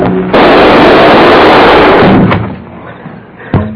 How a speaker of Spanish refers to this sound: Pronto, tengo que llevarme el dinero y antes de que vengan a ver qué fueron los disparos.